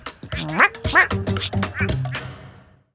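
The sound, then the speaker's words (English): A voice imitates the call of the Australian quacking frog with a quick run of nasal, honking quacks, about half a dozen close together, loud, then fading to silence. “for now, I'm …, signing off like a quacking frog”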